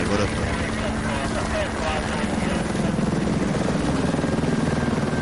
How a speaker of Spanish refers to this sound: más tarde, un helicóptero de la policía recoge al escritor y Amelia lo acompaña. Unos agentes los guían hasta el aparato, donde ambos suben para luego iniciar el despegue.